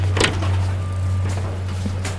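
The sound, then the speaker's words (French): A coffee shop door is pushed open, giving a few short clunks and rattles spread over about two seconds, all over a steady low mechanical hum. “Eh ben j'ai envie de vous dire, euh, il n'y a plus qu'à pousser la porte.”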